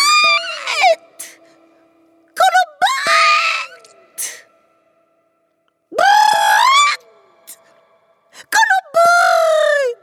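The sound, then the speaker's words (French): A voice imitates a shrill, strident cry in several loud bursts, piercing high-pitched shrieks with wavering, sliding pitch, separated by short pauses and breaths. “Ainsi, il est parvenu à produire un son plus fort que fort, un cri strident comme ça.”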